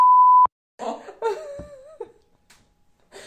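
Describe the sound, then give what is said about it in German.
A loud, steady censor bleep over a spoken name sounds for about half a second, cutting off abruptly, followed by a short pause and then laughing, wavering vocal sounds from a person. “Muss ich jetzt schon wieder piepsen?”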